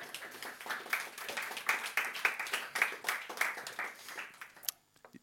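An audience applauds a man with steady, dense clapping for about four and a half seconds, moderately loud, then it tapers off quickly into near silence.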